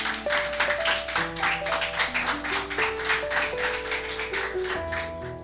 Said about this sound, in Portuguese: Dê uma linda salva de palmas para o Senhor Jesus.